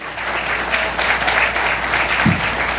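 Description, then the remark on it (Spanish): An audience applauds steadily at the close of a talk, ahead of a book presentation, a dense wash of many hands clapping at once that holds an even loudness throughout, with no voices standing out. “un aplauso de, de veras porque,”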